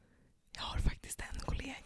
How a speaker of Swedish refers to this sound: Ja för då ska man ju viska så här